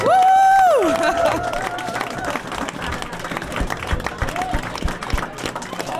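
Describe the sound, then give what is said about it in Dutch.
Loud, sustained applause from an audience for the HvA editorial staff, dense overlapping claps with some cheering, opening with a brief high whistle-like tone that fades after the first second. “Er wordt zo hard geklapt dat de kerstversiering bijna eh, van het plafond wordt getrokken.”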